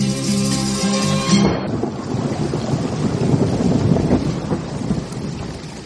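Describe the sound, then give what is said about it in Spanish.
Steady rain hisses loudly, with deep rolling thunder rumbling underneath. A short sustained musical tone sounds over the opening seconds, then cuts off, leaving only the storm. No one speaks. “Sin embargo, yo quería hablar de la lluvia, igual pero distinta, ya al caer sobre los jardines, ya al deslizarse por los muros”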